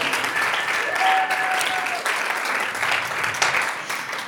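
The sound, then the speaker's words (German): An audience claps steadily throughout, a dense crackle of many hands, with a brief whistle cutting through early on. “Sie leitet auch das Applaus.”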